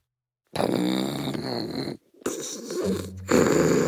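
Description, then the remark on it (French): Loud, rumbling snores of a sleeping wolf: a long rasping inhale, a brief pause, then a rougher snore that swells into a heavy, growling exhale. “Et pendant que le loup ronfle”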